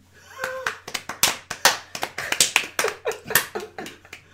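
Brief, sparse applause: a small number of hands clapping in sharp, irregular bursts for a few seconds, with a faint steady hum underneath and no voices.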